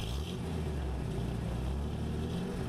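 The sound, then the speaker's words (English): A car engine runs steadily, a continuous low rumble that swells slightly as it revs while the car is driven back onto the road, with no one speaking over it. “After I got the car back on the road again, I felt like a fool.”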